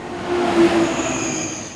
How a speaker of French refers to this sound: On a pris le train, enfin des trains, des nouveaux, des vieux. Des lents, des rapides.